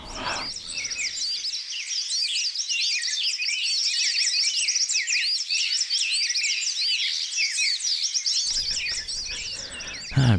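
A dense chorus of small birds chirping and singing continuously, many overlapping high-pitched tweets and trills filling the air at steady, fairly loud volume with no talking.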